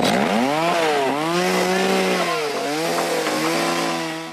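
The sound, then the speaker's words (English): A chainsaw runs loud without a break, its engine revving up and down in pitch, a harsh buzzing whine that settles into a steady roar. No voices. “I think although there was a little bit of charm when he drowned himself out with a chainsaw.”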